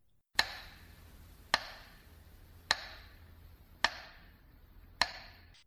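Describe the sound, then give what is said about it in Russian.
A metronome broadcast over the radio during the siege of Leningrad ticks slowly and steadily, five sharp knocks about a second apart, each with a brief ringing tail, over a faint low hum like an old broadcast. “А там во время блокады, когда радио не работало, в эфире стучал метроном – Быстрый ритм означал воздушную тревогу, а медленный ритм – отбой.”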